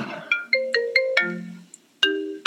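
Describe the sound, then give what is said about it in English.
A phone ringtone plays alone for an incoming call from UCI, on a phone connected to a computer: a bright, synthetic melody of sharp, plucked notes with ringing tails, several tones in quick succession, a short pause, then two more notes, loud. “is coming in, and my phone is now connected to my computer.”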